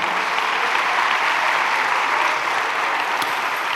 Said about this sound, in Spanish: Dale un aplauso al Espíritu Santo que está con nosotros.